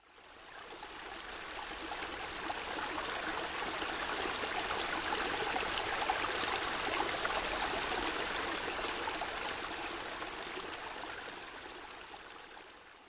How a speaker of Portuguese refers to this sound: Por estarmos acostumados, às vezes estes sons passam sem chamar muito a nossa atenção, como simples sons de passos, até o som da água correndo em uma cena ambientada perto de um rio.